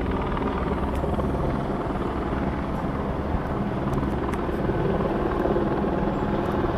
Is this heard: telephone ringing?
no